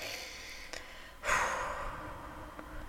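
A single deep, audible breath, a faint intake followed by a long, airy exhale that fades out slowly, with no talking.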